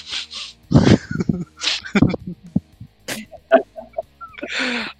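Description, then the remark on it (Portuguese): A voice imitates a loud, sharp sniff, a father sniffing his son after the boy said he had cleaned himself, amid bursts of breathy laughter and short vocal noises, ending with a longer rough exhale. “Só dei aquela fungada.”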